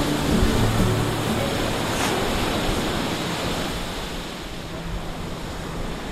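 Sea waves of warm water wash steadily onto a white-sand beach in Cape Verde while a breeze blows across the microphone, making a continuous, fairly loud rushing roar with no voices.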